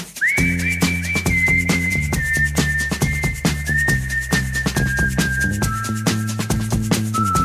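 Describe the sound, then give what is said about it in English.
A clear, bright whistled melody, the intro of a 2000s one-hit-wonder pop song, glides and steps through a tune over a steady band backing with drums and bass, the whistle sitting prominently on top throughout. “the only reason that you know this song is because there's a wonderful whistled intro to the song.”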